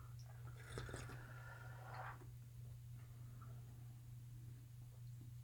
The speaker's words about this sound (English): All right, so we'll go ahead and take our first sip here.